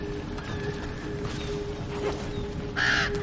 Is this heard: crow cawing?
yes